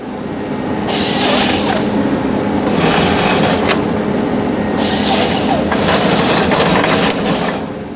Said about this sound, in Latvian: Mašīna pieliek pie koka stumbra zāģēšanas galvu, iekāpjas tajā ar savu dzelzceļa žokli un ielaiž koksnē rotējošos zobus. Pēc dažām sekundēm koks jau ir nozāģēts un atrodas horizontāli uz zemes.